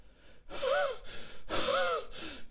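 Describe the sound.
Two loud, heavily voiced panting breaths in quick succession, raspy and breathless, performed by a voice as a hare gasping for air after racing, with no other sound around.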